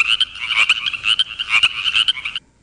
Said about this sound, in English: I thought I heard some other frogs in the room, or maybe they were outside. I, I think there's some frogs out there somewhere.